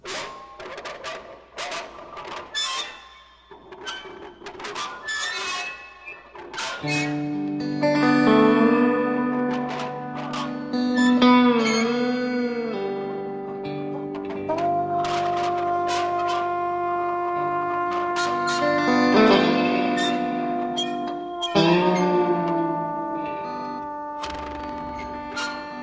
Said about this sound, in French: Que ce soit avec la guitare au bottleneck, instrument avant ou trompette jouée en demi-valve, les musiciens se relaient dans ses textures de meute de loups, mais cool.